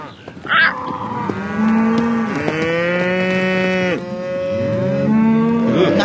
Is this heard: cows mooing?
yes